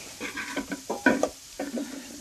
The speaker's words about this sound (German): So, die Blätter müssen, glaube ich, nur so einen ganz kurzen Moment hier durch die Pfanne gezogen werden, dass sie ein bisschen zusammenfallen und eben auch Feuchtigkeit verlieren.